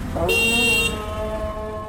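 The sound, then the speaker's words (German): Car horns blare angrily in a traffic jam in an Islamic old town, a loud sustained honk with bright harmonic tones overlapping lower horn blasts, set against steady roadway rumble. “Der Gebetsruf des Muezzins übertönt das zornige Hupen im Stau.”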